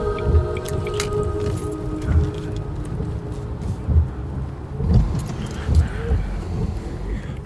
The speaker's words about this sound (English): And then the sound of traffic, and we zoom into the dark water and pull back into the pavement of a major junction of the road in from Mallow.